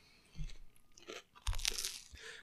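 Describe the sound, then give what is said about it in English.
Crisp crunching as someone bites and chews a slice of crusty, airy bread made from a very wet dough, with a few distinct crackly bites in a loose rhythm and no talking. “It's like doughy, crunchy, chewy, airy.”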